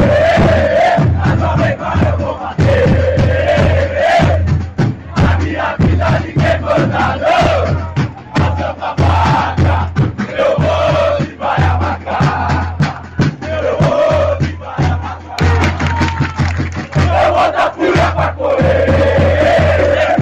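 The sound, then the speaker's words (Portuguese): A large stadium crowd of Ponte Preta football supporters chants a melodic song in unison, loud and continuous for the whole stretch, with steady drumbeats thumping underneath. “O Som das Torcidas #176 Ponte Preta”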